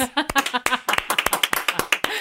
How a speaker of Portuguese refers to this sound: Maravilhoso, gente. Assim, só, sei lá, palmas.